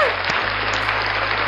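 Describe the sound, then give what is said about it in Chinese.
Steady, loud applause from a crowd cheering the recruit camp team's first win, 392 to 372, a dense wash of many hands clapping at once that holds evenly throughout, with a low constant hum underneath and no voices. “掌声， 掌声！”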